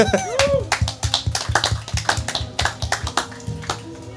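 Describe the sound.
Audience applause at a live talk for the event's organizer: brisk, evenly paced clapping that keeps a steady rhythm for about four seconds, with a voice laughing and talking beneath it.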